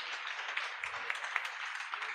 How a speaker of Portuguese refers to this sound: Aplaude ao Senhor pela vida servo do Senhor.